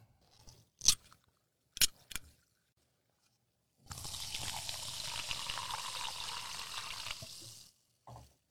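A few sharp clicks and taps, then a steady, fizzy pour of soda into a cup lasting several seconds, with bubbly hiss throughout, followed by one more short click.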